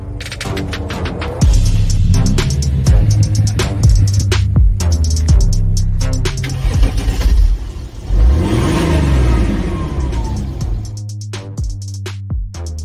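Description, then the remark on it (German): A car with over 200 horsepower revs hard and accelerates through repeated gear changes on the Nordschleife race track, its pitch climbing and dropping in loud waves with no talking. “wir gehen selber mal jetzt auf die legendäre Nordschleife, aber nicht mit diesem schönen Gefährt leider, sondern mit dem Beast of the Green Hell”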